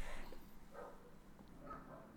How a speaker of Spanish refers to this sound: Al parecer se está peleando una jauría de perros por ver quién va a ganar, si Estados Unidos o México.